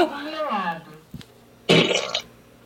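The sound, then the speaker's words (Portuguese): A voice imitates a fart, called a mother-in-law's fart: a drawn-out, falling buzzy tone, a short pause, then a loud, harsh, sputtering burst that cuts off abruptly. Fairly loud, with no other talk. “Peido de sogra.”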